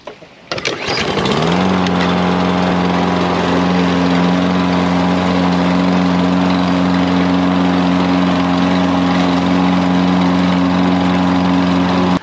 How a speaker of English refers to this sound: The next thing I'm going to do is start my lawn mower up, start up. I need to start it up. And to do that, I need to pull on the cord.